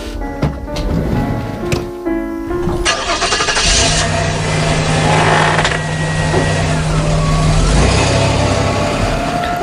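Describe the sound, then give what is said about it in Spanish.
A pickup truck driving through the villages of an island at night: its engine turns over with a few sputters, then catches and settles into a loud, steady, rumbling run, with a low droning hum holding underneath. “El primero, este que escuchan, el de una camioneta que de noche recorría los pueblos de la isla.”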